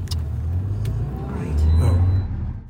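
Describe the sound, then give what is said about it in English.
A car drives past on a road, its low engine rumble and tire hiss swelling to a peak and then easing off as it moves away. “Oh, here comes a car.”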